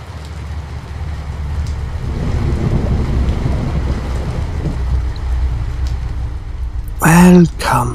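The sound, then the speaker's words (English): A steady storm of rushing wind and rain fills the scene with a deep, continuous roar, swelling slightly midway, and a brief, loud, wavering tonal sound cuts through near the end. “Please, won't you come in out of this dreadful storm?”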